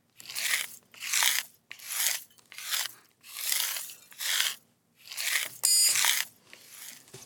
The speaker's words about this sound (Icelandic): Þarna var verið að sópa upp glerbrott.